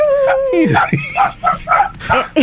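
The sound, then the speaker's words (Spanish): A dog named Leroy gives a high, whining yelp followed by a quick run of five or six sharp barks, fairly loud and unevenly spaced. “Ahí se escucha Leroy.”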